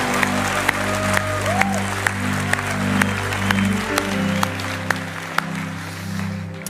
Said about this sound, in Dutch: Het applaus geven aan alle mensen die deze keuze hebben